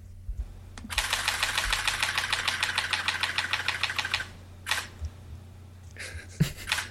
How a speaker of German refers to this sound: Hier hört ihr eine Pentax K5 im Serienmodus mit sieben Bildern die Sekunde